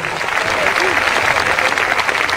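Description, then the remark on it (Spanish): An audience at a church evangelistic campaign applauding Jesus Christ, heard at a distance, a dense, even wash of many hands clapping at once that holds at a constant loudness for the whole stretch, with faint crowd murmur mixed in. “Ese aplauso que se escucha ya a la distancia.”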